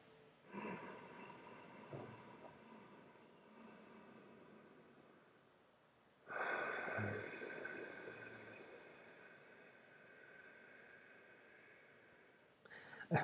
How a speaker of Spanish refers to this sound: ¿Se escucha? Sí, sí se escucha, pero se escucha acá afuera, ¿saben? E, el sonido que hace en nuestra nariz, la respiración oceánica, se escucha aquí adentro y la escuchamos en todo nuestro cuerpo.